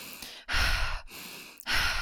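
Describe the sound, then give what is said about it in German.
Loud breathing in a continuous cycle, a demonstration of cyclic breathing, a deliberate guided hyperventilation: forceful breaths alternate in and out with almost no pause between them, each lasting about half a second to a second. No talking. “Es ist ein zyklischer Atmen, das heißt, wir at du atmest aus und ein ohne Pause zwischen Ein- und Ausatmung.”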